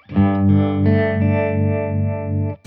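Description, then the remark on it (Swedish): An electric guitar run through an effects pedal plays a few quick chords in succession, then lets one ring out with a thick, distorted, shimmering sustain before it cuts off. “Jag skulle ja. vilja ha en pedal där båda de här ljuden fanns.”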